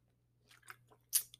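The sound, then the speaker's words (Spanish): Someone takes a small sip of water: a few soft wet mouth clicks, then a sharper, louder slurping sip and a final tiny click, with a faint steady low hum underneath and no talking. “tomando un poquito de agua”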